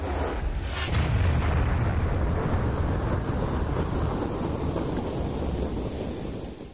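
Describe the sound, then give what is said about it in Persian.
A missile explosion: a loud, booming blast bursts in about a second in, then rolls on as a heavy, sustained low rumble with broad roaring noise that slowly fades, with no voices. The missile struck near the old ancient bridge of Dezful, violently shaking glass, windows and doors. “و بعد یه دفعه بعد یه یه خب یه صدای بسیار مهیبی همراه با تکون خوردن شدید شیشه و پنجره و در و اینا همه اونو از جا بلند کرد همه دویدیم تو حیات”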